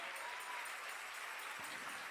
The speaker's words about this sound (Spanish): Si aquí hay algún siervo de Dios que se siente honrado por ser siervo de Dios, que le dé un mejor aplauso al Señor.